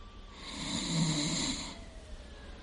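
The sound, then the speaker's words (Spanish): A man snores once while sleeping standing up in a doorway, a long raspy rattling breath that swells and then fades out, followed by quiet hiss. No one speaks. “En la puerta, Hewell duerme de pie.”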